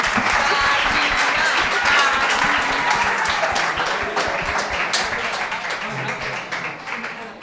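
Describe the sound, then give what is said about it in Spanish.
Sustained applause from an audience for the teacher in charge as she is asked to come to a microphone, a dense, steady wash of many hands clapping that holds strong and then gradually tapers slightly toward the end, with some voices mixed in. “Y le, pedimos que se acerque, si puede, por favor, un fuerte aplauso, que se acerque a algún micrófono.”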